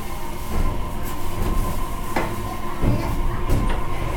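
A JR Kyushu BEC819 series one-man electric train runs from Wakamatsu toward Orio, a steady rumble heard from inside the carriage with a constant motor hum and occasional rattling clunks over the track; no one speaks.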